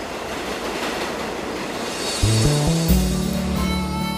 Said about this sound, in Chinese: 它其实第二首歌是有火车的一个声音。